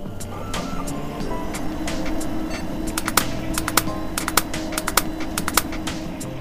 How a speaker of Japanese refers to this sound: さっきも言ったけどこんな音がするハードディスクにアクセスするのは自殺行為だにゃん